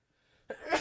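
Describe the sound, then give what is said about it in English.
A single sneeze: a faint breathy intake, then a sudden loud, hissing burst of air that swells and carries to the end. “I'm going to sneeze.”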